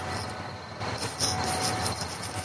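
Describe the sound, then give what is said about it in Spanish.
A supermarket refrigerator gives off a steady, cricket-like chirping, rapid high-pitched pulses repeating over a continuous low mechanical hum, moderately loud, with no one talking. “No son grillos, es la nevera. Pero suenan como si fueran los grillos de Milcar.”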